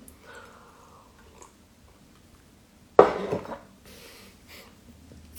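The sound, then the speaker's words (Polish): Someone drinks water: after a quiet stretch, a sharp clatter like a glass being picked up or set down, followed by a few soft, faint sounds like sips or swallows. No talking. “Czekajcie, napiję się wody.”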